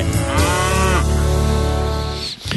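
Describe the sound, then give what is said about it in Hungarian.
A cow gives one long, loud moo lasting a couple of seconds, clear, with a rich droning tone that wavers slightly before cutting off. No one speaks. “Mert a tehén nem szálmazsák, hogy megtömjük, ugye?”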